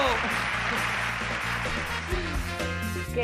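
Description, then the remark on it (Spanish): A burst of dense, steady applause for a returning guest on a programme fills about three seconds, with low sustained musical tones running underneath and a few voices faintly mixed in. “Sí, sí, ¡Bravo, aplauso!”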